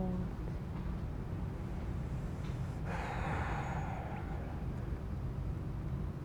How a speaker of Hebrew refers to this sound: להניח לגוף, להרפות לתוך מגע החלל. לקחת כמה נשימות מלאות.